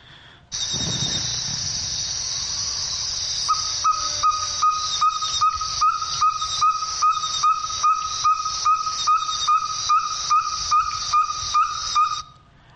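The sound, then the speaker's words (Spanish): A small frog or toad calls in a steady series of short, rapid, tonal croaks, recorded in the afternoon near a puddle of water, over a constant loud hiss like rushing water. “¿no escucharon una especie de sapito, una ranita? Eso puede indicar perfectamente que uno está cerca de un charco de agua, por más que sea chiquitito o grande, había agua cerca.”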